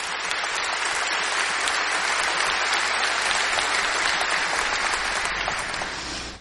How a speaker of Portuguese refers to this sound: Uma salva de palmas para esses nossos irmãos.